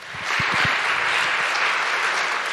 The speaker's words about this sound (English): Thank you, Lejla. Let's give a round of applause to Lejla.